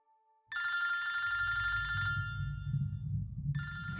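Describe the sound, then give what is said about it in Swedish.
A telephone rings loudly with a bright, warbling electronic tone in two bursts, separated by a short pause, over a low rumbling background. The call is from Pierre, reporting that his mother burned to death in a house fire in the night. “Det var Pierre som ringde.”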